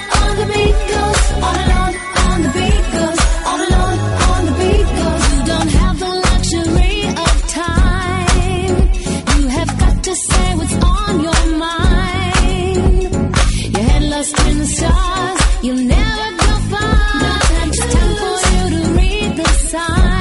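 A loud pop-song mobile phone ringtone plays continuously for about twenty seconds, with a steady dance beat, layered synths and vocals, full and close, with no talking over it.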